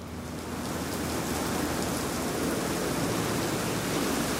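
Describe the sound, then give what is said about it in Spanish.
Heavy rain pours down in a steady, dense, loud roar throughout with no pauses, the hiss of countless drops on hard surfaces filling every moment, as a drizzle turns into a storm on a sidewalk in front of a hotel. “Está lloviendo de verdad. Está un huracán, cabrón.”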